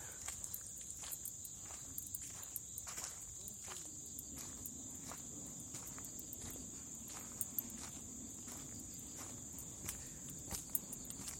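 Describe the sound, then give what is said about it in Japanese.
A steady, high-pitched chorus of insects chirps continuously outdoors at night beside a vacant lot, while slow footsteps crunch along in an irregular rhythm beneath it. “めちゃくちゃ虫の声が多分聞こえてると思いますね。”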